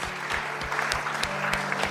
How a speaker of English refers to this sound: And if I can't get a clap for that, I don't know what I'm going to get a clap for.